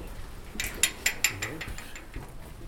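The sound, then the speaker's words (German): A cave's exit door being shut, heard as a quick run of sharp, metallic latch clicks and rattles, three louder snaps close together, over a faint low murmur. “schließt die Tür”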